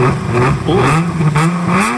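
A combustion-engine car revs loudly, its rising and falling engine tone rumbling steadily for about two seconds, with no one speaking.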